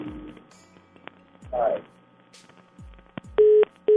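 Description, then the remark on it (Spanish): A phone line clicks and crackles, then a steady electronic tone sounds in two loud beeps, the second cut short, the busy signal of a dropped call, with faint line noise beneath. “No, se cortó la llamada.”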